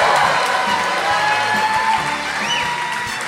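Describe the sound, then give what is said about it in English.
A rowdy theater audience at the sold-out Majestic Theater in downtown Madison, Wisconsin, cheers loudly at a live show on October 26, 2023, a steady roar of shouts, whoops and clapping that holds throughout, with a shrill rising whistle or whoop cutting through near the end. “with a crowd of, of rowdy, rowdy Madisonians.”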